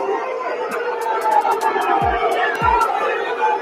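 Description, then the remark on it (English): A large stadium crowd of Millwall fans at The Den boos loudly and continuously as players kneel before a match against Derby County, a dense roar of many voices with scattered sharp whistles cutting through and a couple of low descending tones. “The sound of booing echoing around the den before the match against Derby County.”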